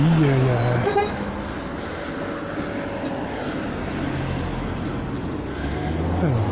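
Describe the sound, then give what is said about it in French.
Continuous rumble of busy road traffic with engines droning, and a short tonal blare like a horn near the start and again at the end. Faint voices may sit under the noise. “qu'est-ce que c'est que cette circulation là aujourd'hui Compliqué.”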